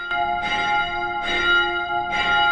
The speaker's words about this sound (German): Sagt Gerd Burghof zur Gründung seines Vereins, der auch dafür sorgte, dass im Türmchen regelmäßig die Glocken läuten.